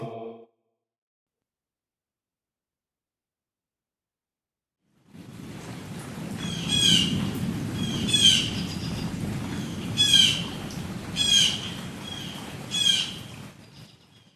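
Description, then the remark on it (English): After a few seconds of silence, a steady rustling wash fades in at dawn, and birds waking in the canopy chirp over it in short, bright bursts, about five calls spaced a second or two apart. “Sol had risen a bell past, and the relative silence of night was being replaced with the rustle and chirp of birds waking in the canopy above.”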